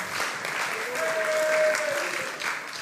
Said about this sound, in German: Ist ein Applaus wert, oder?